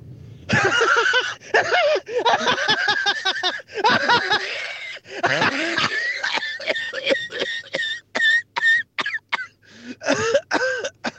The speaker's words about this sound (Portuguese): basicamente até que me deu um ataque de tosse e, e, eh, e deu fanico.